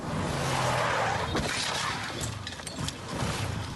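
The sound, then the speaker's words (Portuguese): A car, reportedly speeding, crashes into motorcycles of a passing convoy on a highway near the town of Água Preta, 120 km from Recife, filmed from the road shoulder; a loud impact with shattering and scraping debris over steady road and engine noise, followed by rattling clatter as pieces settle. “Um dos integrantes do grupo parou no acostamento para registrar a passagem do comboio e flagrou o momento de uma das colisões.”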